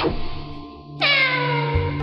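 A single cat meows, clear, with a drawn-out, slightly falling tone after a second of quiet background. No one speaks.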